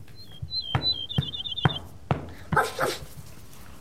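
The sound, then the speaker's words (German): A dog whimpers in thin, high whining chirps, broken by four short, sharp barks at a steady pace and a louder, rougher bark near the end, with no talking. “Ja, Hundchen, ich gebe dir gleich was zu essen.”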